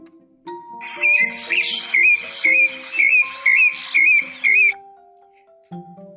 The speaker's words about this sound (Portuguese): Tem monte de passarinhos cantando para os vizinhos.